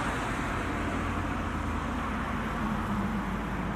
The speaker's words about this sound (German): Jeden Tag kämpfen sich rund um die Uhr die Autos durchs Nadelöhr Eckernförde. Ein Auto nach dem anderen. Stoßstange an Stoßstange. Und häufig mit nur einem einzigen Passagier an Bord.